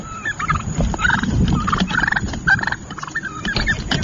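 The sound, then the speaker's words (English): Several wild turkeys in New Jersey gobble in loud, rapid bursts as they come at the person taking the picture, their warbling calls overlapping and repeating over a rumbling, noisy outdoor background. “Now, then there's other stories of this happening in New Jersey, and they show the turkey starting to attack the person taking the picture. And this is what it sounds like.”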